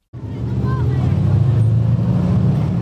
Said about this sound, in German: Der Boden vibriert, als die schweren Panzer vorbeirollen. 300.000 Menschen sind laut Verteidigungsministerium gekommen, um sich Mitte August bei der Militärparade in Warschau schweres Kriegsgerät anzuschauen.